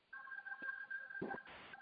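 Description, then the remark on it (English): A phone keypad tone holds steadily for about a second as a phone button is pressed to mute a conference call, then gives way to brief bursts of noisy crackle and a final short beep, clear, with no talking. “um, you can basically just hit the button on your phone that says mute.”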